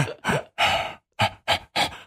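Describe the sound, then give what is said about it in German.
Exaggerated, rhythmic breathing: six loud, breathy huffs in quick succession, alternating long and short, with brief silent gaps between them and no talking. “So, so atmet man halt, ja. das klingt aber nicht gesund.”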